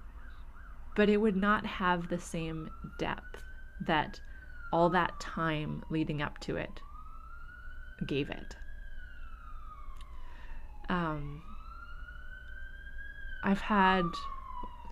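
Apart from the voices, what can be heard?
siren outside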